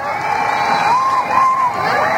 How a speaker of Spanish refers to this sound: Y llegamos con todos los gritos y las pasiones al momento bis, bises, bises, bises.